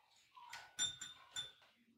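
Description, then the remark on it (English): A female dog whines faintly in a few short, high-pitched bursts over about two seconds, with soft clattery noises mixed in and no one talking. “Why is my dog whining?”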